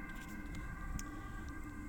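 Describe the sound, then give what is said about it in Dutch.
An ambulance passing by sounds its loud siren steadily throughout, its tones holding without a break over a low traffic-like rumble, at moderate loudness. “En ehm, die ambulance komt langs.”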